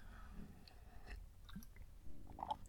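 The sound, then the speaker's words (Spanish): Quiet sipping of coffee: a few soft slurps and small mouth and swallowing sounds spread over a couple of seconds, with no one talking. “que pasa para trago café.”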